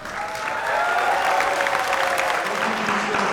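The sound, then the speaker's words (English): Steady audience applause after a candidate's speech for governor, a dense wash of many hands clapping at once, fairly loud and sustained throughout with a faint murmur of crowd beneath it. “Let's get applause because.”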